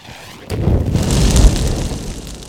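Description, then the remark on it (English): A sparkler is lit with a sudden loud whoosh, then keeps fizzing and crackling steadily, a dense, sputtering hiss of sparks with a low rumbling undertone and no voices. “In the time it took to light that sparkler”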